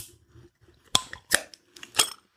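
A bottle opener works at the cap of a bottle of Licher beer: three sharp metallic clicks and scrapes about half a second apart, moderately loud over quiet background, with no voices.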